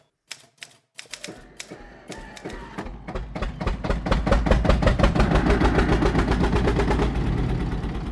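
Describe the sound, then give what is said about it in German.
Rapid typewriter keys clatter on a table in a dense, accelerating stream of sharp strikes, starting with a few isolated taps and building to a loud, continuous rattle with a low mechanical rumble underneath. “Ich musste eine Filzplatte unter die Maschine legen, einen Schalldämpfer.”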